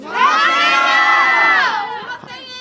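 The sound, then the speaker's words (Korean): A crowd of young voices, a group of middle school students, shouts together in a loud, sustained burst of high-pitched cheering that lasts nearly two seconds before trailing off into scattered voices. “우리 밖에 우리 많은 학생들이 계시는데 우리 학생들 중학생이에요? 초등학생이에요?”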